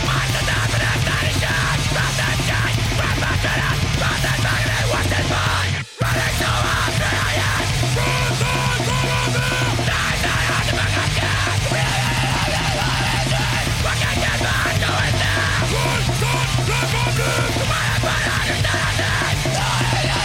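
A loud, dense rock song with shouted, yelled vocals over pounding drums and distorted guitars, played continuously with a brief dropout of silence partway through.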